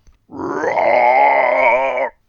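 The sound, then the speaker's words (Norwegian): A person imitates a bear with a single sustained, rough growling groan lasting nearly two seconds, loud and steady, rising slightly in pitch at the start before holding a low, gravelly tone. “Jeg synger nå ut uh, i bjørnens tone, jeg, da.”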